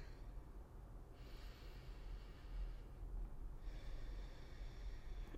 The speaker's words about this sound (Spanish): Eh, y recuerden siempre respirar por la nariz. Inhalar y exhalar por la nariz. ¿Ok? Entonces cerramos los ojos, si estás manejando, no cierres los ojos. Entonces, vamos, cerramos los ojos, vamos con la primera respiración. La segunda.